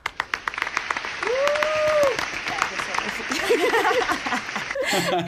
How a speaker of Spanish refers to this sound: Un aplauso.